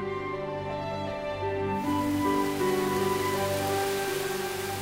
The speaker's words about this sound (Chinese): 下雨了，雨点又密又急，打在奥利弗身上，宛如打在大地上，没有一点声息。